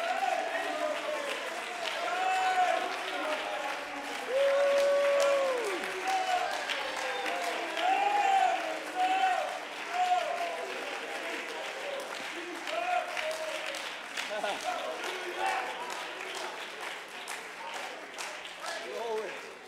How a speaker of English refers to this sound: Oh, come on, First Apostolic Church. Let's stand to our feet and clap our hands and shout unto God with the voice of triumph.